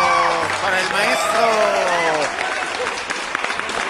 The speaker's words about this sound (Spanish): aplauso.